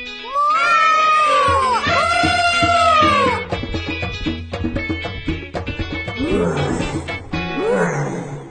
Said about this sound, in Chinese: 哦哦，好像是狮子的声音。